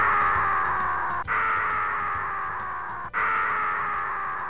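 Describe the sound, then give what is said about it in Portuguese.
A video game baby character's crying sound effect, the cry of Kid Kong in DKC 3: a loud, harsh, sustained wail broken into three long bursts by two brief pauses, with no talking over it. “É o gritinho do Alex Kidd no Lost Stars, o choro do Mario Neném no, no Yoshi Island e o choro desse Kid Kong, cara, no DKC 3, cara.”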